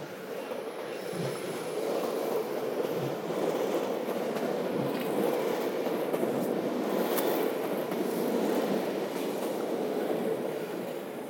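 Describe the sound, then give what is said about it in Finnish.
A train rumbles past on railway tracks about six metres away, beside Hakaniemi pond, a steady, dense roar of wheels on rails with faint clattering and a brief metallic squeal, sustained loudly throughout with no voices. “kuten varmaan äänestä kuuluu, käveleskelen nyt tässä raiteiden, siis ihan kuuden metrin päässä tuosta lähimmästä raiteesta tässä Hakaniemen lammikon laidalla.”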